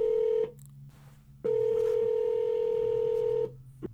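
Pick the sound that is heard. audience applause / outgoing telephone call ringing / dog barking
outgoing telephone call ringing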